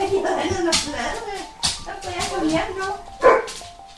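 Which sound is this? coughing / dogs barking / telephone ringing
dogs barking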